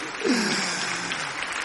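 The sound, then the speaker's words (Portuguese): A steady wash of audience applause, many hands clapping in a dense, even patter at moderate loudness, with a brief low voiced sound near the start. “Aplaude assim, aí,”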